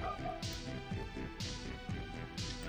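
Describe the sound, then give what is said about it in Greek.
A dog barks three times at a steady, roughly one-second pace, each bark sharp, over a low background hum with no talking. “Συμφωνεί και ο σκύλο.”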